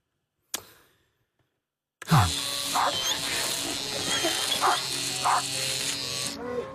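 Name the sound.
electric razor buzzing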